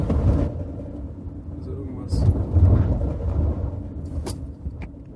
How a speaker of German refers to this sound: Auto, das Auto ist, glaube ich, zu laut für so eine Scheiße.